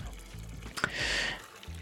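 Cooked chickpeas and their cooking water are poured into a container to cool, a short rushing, splashing pour lasting about half a second after a brief clink, fairly quiet with a low hum underneath.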